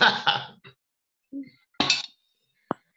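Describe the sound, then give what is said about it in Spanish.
Coffee cups clink together a few times in a toast, with bright knocks spread over a few seconds and a final sharp tap, no voices heard. “ah, pues brindemos por nuestra amistad para que nunca termine.”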